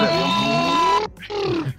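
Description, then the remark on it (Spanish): Someone imitates with their voice the loud cooling fan of a PS4 Slim running a game: a strained, roaring drone held for about a second, a brief pause, then a shorter second burst, loud. “O sea, suena así como si fuera que de”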